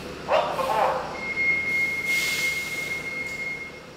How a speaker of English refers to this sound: The 85 bus pulls up in front of the Senior Center in Lawrence, Massachusetts.